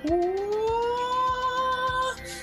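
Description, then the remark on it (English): A big sustained synth 'void' tone, built with a modeling reverb that simulates a huge space, swells and slowly rises in pitch, ringing out spaciously over a steady, regular thumping beat, loud and continuous until it cuts off near the end. “Now you begin to hear these big void sounds coming in.”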